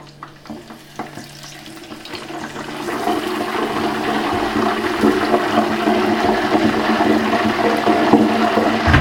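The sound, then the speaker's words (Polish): Remaining water drains from corn kernels as they are stirred by hand, a soft rushing trickle that swells louder over several seconds and then holds at a continuous hiss, with no voices. “Przemieszamy rączką, żeby resztki wody odsączyć z ziarenek.”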